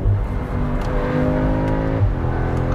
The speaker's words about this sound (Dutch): Maar als jullie goed luisteren... Ik zal eens even terugschakelen en een beetje accelereren.